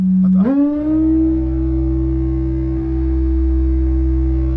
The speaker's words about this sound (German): Und wir werden im Verlauf der nächsten Stunde auch noch lernen, mit welchen Feedback-Schleifen und mit welchen verrückten Geräten Andi diesen ganzen Sound, diesen Noise-Teppich erzeugt hat.